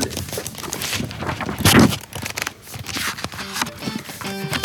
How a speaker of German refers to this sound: Ich gehe noch mal, ich mache noch wegen Bücherrascheln zum Schluss oder so. Vielleicht kann noch jemand mit dem Bücher rascheln.